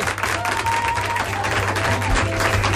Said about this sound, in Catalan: en presència dels alumnes de segon d'ESO de l'Institut Galileo Galilei de Nou Barris que aplaudeixen així de fort i així de bé.